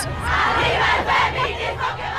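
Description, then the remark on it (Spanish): A crowd of protesters shouts together in loud, sustained bursts, many voices overlapping into a dense roar with rhythmic swells, no single speaker standing out. “Y si para ello hay que gritar, gritamos.”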